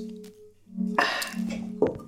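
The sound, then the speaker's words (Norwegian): Two glasses clink together in a toast, one bright tap followed by a second a moment later, fairly clear over a low steady hum. “Kanskje en liten skål? Mm. Hm. Tschüss. Cheers.”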